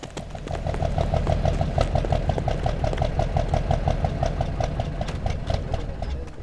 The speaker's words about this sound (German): Karkaroff, er will den Zug starten.